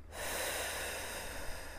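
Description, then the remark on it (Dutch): A single long, deep breath drawn in through the nose, fairly loud, with a steady airy rush lasting under two seconds and no talking. “En kon ik dus door even diep in te ademen, door mijn neus,”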